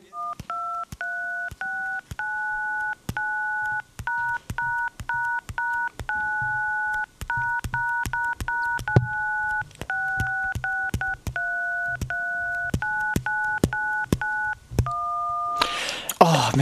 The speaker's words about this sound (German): wo hast du das Tonwahlverfahren jetzt gerade mal so ad hoc simuliert und hergenommen?